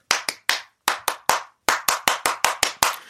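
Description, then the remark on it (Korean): Sharp hand claps in the 3-3-7 cheering pattern, the rhythm behind the name of the 1977 robot show Electronic Human 337: three claps, a pause, three more, then a quicker run of seven. The claps are crisp and fairly loud, with no voices. “전자인간 337이요. 보통 응원할 때”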